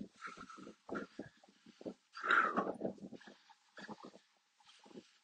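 A dog barks in quick, uneven bursts from somewhere off in the distance, faint at first, then a louder, rougher stretch midway before trailing into a few scattered barks.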